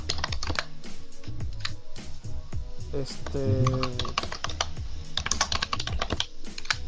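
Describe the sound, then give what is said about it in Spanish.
Rapid, continuous clicking of keys on a computer keyboard, fairly loud, as someone types up the day's film recommendation, Green Book, with a man speaking briefly over the typing in the middle. “Deja estar tecleando, sí, por favor.”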